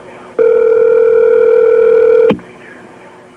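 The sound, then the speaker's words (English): A single steady telephone tone holds one mid pitch for about two seconds and then cuts off abruptly, leaving faint line hiss with no talking. The tone sounds as an emergency call from the 106th floor of the World Trade Center is transferred to the fire service. “Hold on, let me connect you with the fire, okay?”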